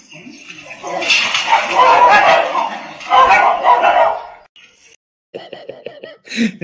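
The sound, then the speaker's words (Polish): Dogs fight at a fence, barking and snarling at each other in a loud, rough scuffle, followed by a quick series of sharp, high barks and a final yelp. “Czy myślicie, że atakuje tego psa, na którego zaatakowali?”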